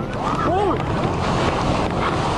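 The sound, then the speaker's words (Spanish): A loud, steady roar of seawater surging ashore in a tsunami on the coast between the sixth and ninth regions on 27 February 2010, with heavy wind buffeting the microphone, continuous throughout, while a voice briefly cries out early on. “Mira cómo se viene el mar.”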